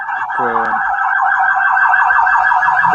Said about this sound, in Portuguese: Ah, é uma sirene aqui passou. Pode falar que foi embora.